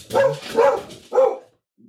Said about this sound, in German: ähm, bei uns dreht gerade der Hund durch.